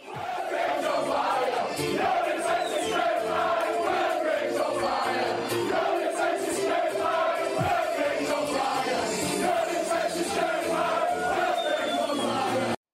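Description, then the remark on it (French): A large crowd of football supporters loudly chants a repetitive melodic song in unison in praise of Wigan Athletic's Northern Irish player Will Grigg, the sustained mass of voices echoing through a stadium without pause. “C'est le chant dans la catégorie les chants à la gloire des, joueurs.”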